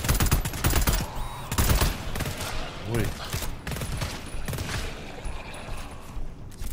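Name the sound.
video game gunfire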